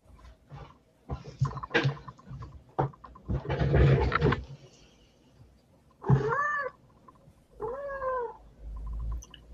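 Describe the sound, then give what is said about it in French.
A domestic cat meows twice, drawn-out rising-and-falling cries, after a stretch of rustling and scraping noises; no one speaks. “Alors, euh, tout comme le beau minou qu'on entend, laissez-les là.”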